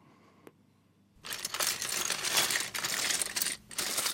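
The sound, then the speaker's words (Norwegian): A brief click, then a dense burst of small plastic Lego bricks clattering and rattling together for about three seconds, fairly loud, with a short pause near the end. “Denne lyden bringer nok fram barndomsminner i de aller fleste av oss. Lyden av Lego.”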